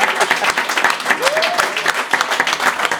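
Steady audience applause fills the whole stretch, a dense crackle of many hands clapping at a lively, even level, with a brief whistle-like tone rising through it midway.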